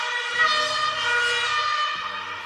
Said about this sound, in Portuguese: Quem não vai viver pra sempre é quem tá nessa ambulância aí.